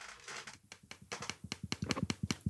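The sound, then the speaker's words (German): Rapid, steady clicking, a dozen or more sharp taps in quick succession, growing louder toward the end, made by clicking in a clicker game, with no one talking. “Damit klickt man Cookies.”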